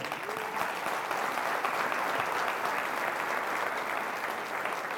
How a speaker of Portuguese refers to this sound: Você pode dar um aplauso a ele?